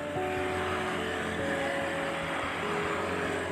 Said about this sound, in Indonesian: Sekali lagi Mohon maaf kalau ada suara bising Seperti mobil, motor Karena aku selain rumahku di pinggir jalan